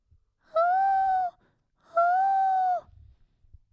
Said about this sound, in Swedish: Förlåt, jag blev lite distraherad nu, för nu hörde jag hunden här under. Mm. Det måste vara den.